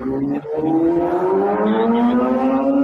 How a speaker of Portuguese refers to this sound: Nossa, peraí, peraí. Nossa, a moto passou aqui do meu lado.